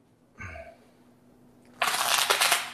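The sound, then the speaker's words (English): A deck of playing cards is riffle-shuffled: a fast, fluttering burst of cards lasting about a second, preceded by a soft knock or tap of the deck. “You can, oh, you can shuffle again.”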